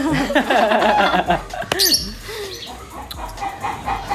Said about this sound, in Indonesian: uh, ini kayaknya ayamnya mau kawin sih. Mohon maaf sobat kompot semua kalau selama kita podcast ada suara ayam ya.